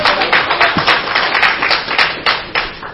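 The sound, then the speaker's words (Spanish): A crowd claps hands together as an offering of praise to the Lord, in a steady, energetic rhythm, the dense sharp slaps filling the space loudly and continuously with no voices standing out. “Den ofrenda de palmas al Señor, aleluya.”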